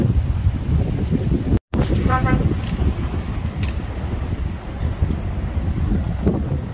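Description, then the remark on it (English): A strong westerly wind roars continuously straight across a lake, pushing into a bay, loud, with heavy low rumbling gusts buffeting the microphone and a brief sharp dropout early on. “Uh, strong westerly blowing straight across the lake.”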